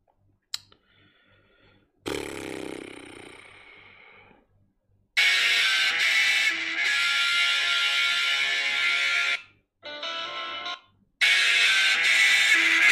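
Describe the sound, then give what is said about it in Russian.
A loud, harsh phone ringtone blares at full volume, unanswered, in long repeated bursts separated by brief gaps, with no one speaking over it. “Вот тебе звонит телефон.”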